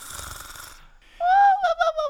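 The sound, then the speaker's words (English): A person imitates the loud snoring of the two queens, asleep with their heads in Alice's lap: a rough, breathy snort on the inhale, then a brief pause and a loud, whistling, wavering exhale. “And just like that, the two queens fell fast asleep with their heads in Alice's lap, snoring loudly.”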